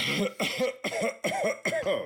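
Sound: cough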